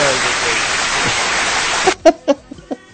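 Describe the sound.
A burst of dense, steady crowd applause lasts about two seconds, then stops abruptly as people begin talking.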